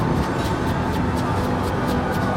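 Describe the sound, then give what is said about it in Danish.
Steady, dense street traffic in Manhattan, New York, at night on dark, frosty streets: a constant low roar of engines and tires with faint rhythmic swishes passing through, fairly loud and unbroken, with no voices. “Det er lyden af New York.”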